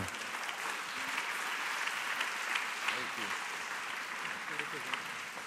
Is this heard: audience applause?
yes